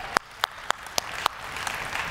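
A handful of sharp, evenly spaced claps ring out, then swell into a denser patter of applause from a small audience, moderately loud with no talking.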